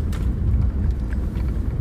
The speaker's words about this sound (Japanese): この今車のエンジン音とかも環境音だし、まあ、僕が喋ってる時点で環境音だけじゃないんだけど